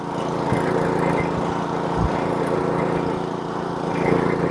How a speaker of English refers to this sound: Why settle for a boring average snow thrower that sounds like this?